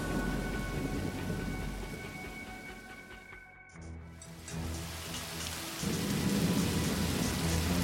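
Steady, hissing rainfall with a deep rumble of thunder in the opening seconds. The downpour dips briefly midway, then swells back and grows heavier toward the end, with no voices.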